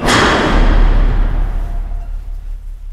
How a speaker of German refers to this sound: Als plötzlich der Fahrstuhl seine Fahrt mit einem lauten Krachen je unterbricht.